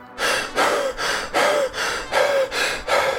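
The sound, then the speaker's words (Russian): Rapid, heavy panting: six or so harsh breaths in quick succession, each with a faint voiced rasp, from a man who has come running back, frantic, frightened and out of breath. “Очень скоро он бегом возвратился назад, совершенно обезумевший, запыхающийся, с расширенными от испуга глазами и с пеной на губах”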